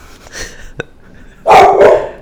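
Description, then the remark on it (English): A dog gives a couple of loud barks in quick succession near the end, after a quieter, fainter yelp-like sound and a brief click earlier on. “now he's gonna whine. Like a little bitch.”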